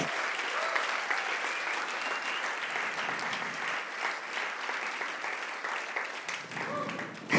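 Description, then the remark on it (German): An audience breaks into steady, sustained applause for people who serve unseen and take everything down in the evening, a dense wash of clapping that holds at a fairly even level for several seconds, with a few voices faintly mixed into the crowd. “Das ist ein Applaus wert, würde ich sagen.”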